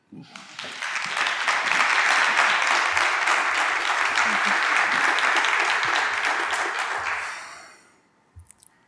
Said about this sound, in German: Ein Applaus bitte.